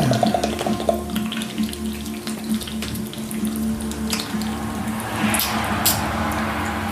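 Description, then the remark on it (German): Water gushes steadily from a tap, a continuous splashing hiss over a low mechanical hum, with small spattering bursts and no voices. “Spritz.”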